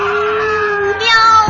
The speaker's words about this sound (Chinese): 喵！猫先生顿时惨叫起来，他的尾巴渗出了鲜血。他的惨叫声。